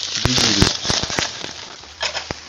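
Eggplant grilling over an open flame to make yaki-nasu (grilled eggplant) before dinner, with a steady hiss and a run of sharp, irregular pops and crackles, loud, thinning out toward the end with a few last snaps.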